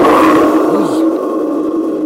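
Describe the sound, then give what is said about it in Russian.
A thunder-imitating instrument gives off a loud, sustained rumbling roar with a metallic, reverberant wash and a brief swooping tone partway through, steady in volume for about two seconds, with no talking. “Это мы демонстрировали дерево дождя, а вот это вот гром.”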